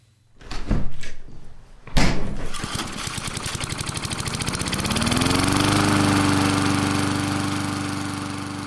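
A few sharp clunks and a pull-start rattle give way to a lawn mower engine that revs up and settles into a loud, steady drone. No one speaks.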